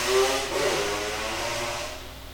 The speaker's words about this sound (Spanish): Bueno, ese hombre pasó como entre... No, sé si era una moto o una licuadora, pero ok, cada cual.